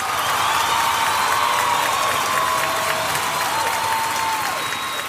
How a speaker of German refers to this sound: Und da gibt es natürlich wie immer einen Jubel.